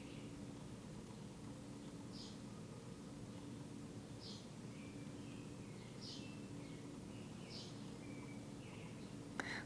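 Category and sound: bird, birds chirping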